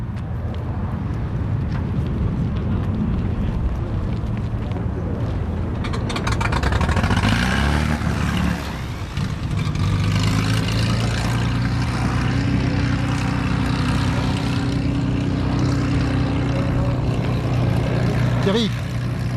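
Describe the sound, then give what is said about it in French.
A small propeller plane, the Delta Papa, roars steadily throughout, a loud droning buzz that swells in intensity partway through as it takes off, with voices faintly audible underneath. “C'est le Delta Papa qui vient de décoller.”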